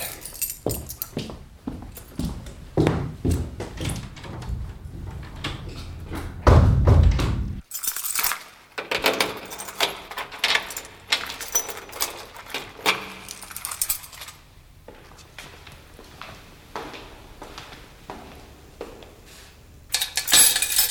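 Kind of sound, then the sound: household object, keys jangling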